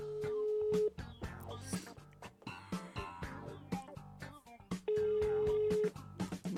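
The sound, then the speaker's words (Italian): An outgoing call rings unanswered: two steady ringback tones, each about a second long and roughly four seconds apart, with people talking and some background noise in the gap between them. “io direi di procedere eh, direttamente con una telefonata.”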